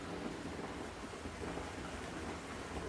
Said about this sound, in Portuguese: Vou aproveitar o resto da tempestade para criar uma música, talvez.